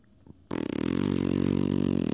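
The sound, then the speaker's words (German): After a brief quiet pause, a voice imitates the strange creaking of a tree on Rudolf-Breitscheid-Straße in Griebnitzsee with one loud, sustained, rasping groan, its low buzzing pitch pulsing rapidly and steadily until the end. “Ähm, da steht halt ein Baum und da knarzt es ganz merkwürdig. Ich kann es vielleicht mal nachmachen, so ein bisschen.”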